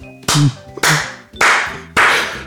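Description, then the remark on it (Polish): Applause from all the actors in a theatre, four loud, sharp claps at a slow, steady pace, each ringing out briefly before the next, with a faint low hum underneath and no voices. “Wszyscy aktorzy zaczynają mu bić brawo.”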